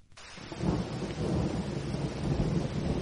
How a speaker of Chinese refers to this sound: 哗啦哗啦，雨滴顺着树叶落在地上，积成一个个水洼。